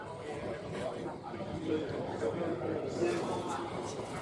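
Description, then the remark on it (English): A quiet indoor ambience of the New York Stock Exchange trading floor, with a low, steady hum of indistinct voices and faint scattered activity, nothing standing out clearly. “But that's the sound of billions of dollars worth of stock changing hands flying through the ether.”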